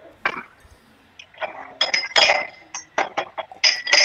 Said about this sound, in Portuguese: Tá ouvindo o copo? ouve o barulho, o tilintar, ouve o tilintar dos meus focos, cara. Ouça o tilintar, ou, ou, o rico tilintar da, da sua prataria e dos seus cristais.